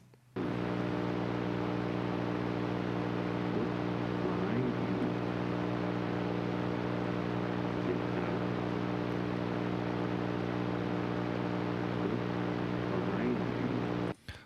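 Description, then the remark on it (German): Heavy, steady static hiss fills the whole recording at a constant loud level, layered over a low droning electrical hum, with a faint voice barely emerging from the noise. “Okay, also es war eine mega crappy Aufnahme, super verrauscht und da sagt jemand, look behind you.”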